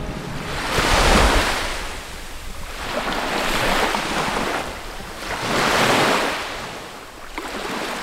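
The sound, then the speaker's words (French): Waves break on Badine beach on the Gien peninsula in the Var, France, in an east wind, in three slow, rolling surges, each swelling and washing back, with steady wind rushing over the microphone throughout. No voices are heard. “Nous sommes plage de la Badine, sur la presqu'île de Gien dans le Var. Par vent d'Est, s'échouent régulièrement”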